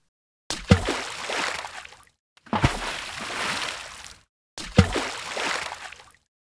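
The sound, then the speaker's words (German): Three bursts of splashing and sloshing water as someone jumps headfirst into a pond holding a box, each opening with a sharp plunge and trailing into broad, churning swish before cutting off, with brief silences between them. “Er war schon mitsamt seiner Schachtel kopfüber ins Wasser gesprungen.”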